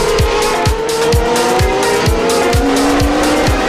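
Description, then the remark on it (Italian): Loud roar of race car engines launching together at the start of a Grand Prix, with rapid repeated revving pulses and a high tire squeal running through it. No voices. “È partita, è partita, è partita il Gran Premio”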